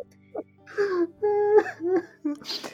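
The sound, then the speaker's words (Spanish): A voice lets out a series of drawn-out, wavering whimpers and moaning cries, rising and falling in pitch, fairly loud, ending in a breathy sob. “Entonces, no, llanto, no sé, pero.”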